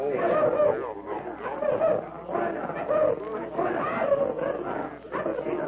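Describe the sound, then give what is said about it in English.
A crowd of people by a river calls out to crocodiles together in repeated, rising bursts, a dense and fairly loud chant-like clamor without clear words that carries steadily from start to finish. “By Jove, it sounds as if they were calling them.”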